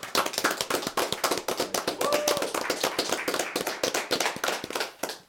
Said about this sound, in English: Everybody clap it up for Properly Laced.